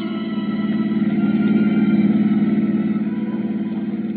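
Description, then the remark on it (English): A car engine drones steadily at a low, even pitch as the vehicle drives back towards CD's office, its hum continuous with a slight swell in the middle and no voices. “So we drove back towards CD's office.”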